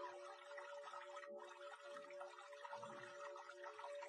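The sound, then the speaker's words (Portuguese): Soft, steady running water flows continuously throughout, faint, with a low sustained tone humming beneath it and no voices. “Ouço o som da música, o barulho da água correndo.”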